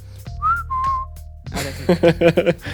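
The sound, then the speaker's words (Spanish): A person whistles two short, clear notes into the microphone, the second slightly lower, followed by a burst of laughter. “hoy, hoy chiflar ah, en el micrófono, vamos a chiflar abajo.”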